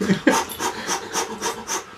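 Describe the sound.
A voice imitates rapid panting, the breathing taught in a childbirth preparation course, about seven quick breathy huffs in a steady rhythm, moderately loud, with no words spoken.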